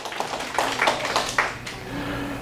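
An audience claps for a moment, a brief patter of overlapping, moderately loud handclaps that thins out and stops after under two seconds, leaving a quiet hum.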